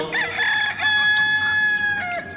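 A rooster crows loudly and close by, one long drawn-out call with a brief break in the middle, holding steady before trailing off. No voices are heard.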